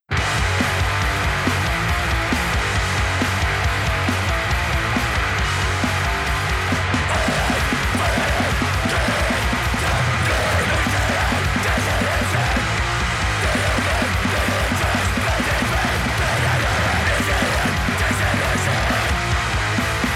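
A grindcore hardcore punk song blasts at full volume for the whole stretch: a dense, harsh wall of distorted guitars and pounding drums with barely any letup.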